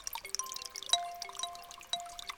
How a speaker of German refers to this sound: Die ganze Zeit dieser Klang der Wassertropfen. Ein tolles Geräusch. Man hörte, dass alles in Bewegung war. So klingt für mich der Frühling.